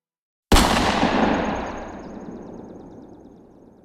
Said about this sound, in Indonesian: Aduh, suara apa sih? Kenceng banget kayak suara tembakan.